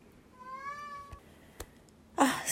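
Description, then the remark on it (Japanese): A cat, the pet Lupin, lets out one drawn-out, wavering meow, clear and fairly loud, followed by a couple of sharp clicks and then a sudden burst of rustling noise. “なんか、ルパンがめっちゃ吠えてるんで、ちょっと行ってきますね。”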